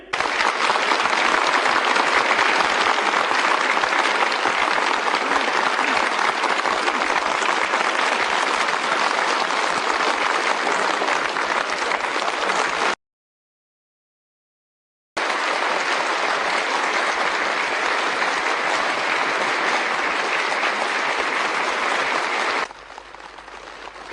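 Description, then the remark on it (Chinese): Long, warm applause from a large crowd after a speech, as Hu Jintao and Jiang Zemin shake hands and wave to the audience: a dense steady roar of clapping that holds at full strength, breaks off briefly partway through, then resumes and eases slightly at the end. “讲话后，胡锦涛、江泽民亲切握手，并向大家挥手致意，全场再次响起长时间的热烈掌声。”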